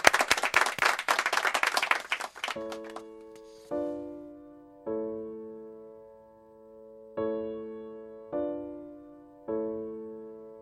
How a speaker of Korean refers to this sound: 그리고 오늘 하루도 직장에서 가정에서 열심히 일하시고 오늘 하루를 잘 버텨내신 우리 에라디오 가족 여러분 모두 다 같이 우리에게도 박수를 드립니다.